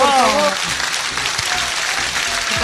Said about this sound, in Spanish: Un aplauso. Un aplauso para, ella,